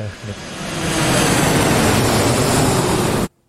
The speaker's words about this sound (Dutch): Dit is volgens mij een vliegtuig toch tijdens, of niet?